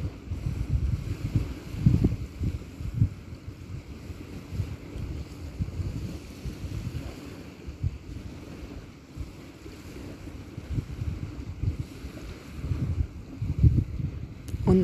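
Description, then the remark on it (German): Small sea waves lap softly and irregularly along the edge of a beach, with gentle splashes rising and falling over a steady rumble of wind buffeting the microphone. No voices are heard. “Streicht das Meer am Saum des Strandes entlang, bricht sich in kleinen plätschernden Wellen.”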